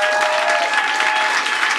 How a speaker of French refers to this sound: Euh, avant de commencer, j'aimerais ça qu'on donne une bonne main d'applaudissement au staff du bordel. Vraiment, là.